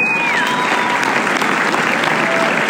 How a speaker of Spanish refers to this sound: Un aplauso inmenso